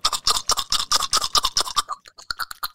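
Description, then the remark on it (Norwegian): A wet, scratchy mouth sound made by tightening under the lip and pushing it back and forth with the tongue, heard as rapid rhythmic bursts that slow into separate pulses near the end, with no talking. “Du må stramme under leppa, og så dytte den frem og tilbake med tunga.”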